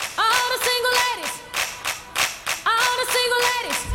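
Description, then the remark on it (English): Steady, rhythmic hand clapping in a gospel-style church beat, sharp, repeating throughout with a sustained melodic tone woven over the claps. “I'm thinking about like to me, it's a church beat. So I just started with the”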